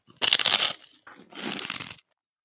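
A crisp crunch of someone biting into a chocolate bar made without sweet whey, followed by a second softer bout of crunching and chewing, with no talking.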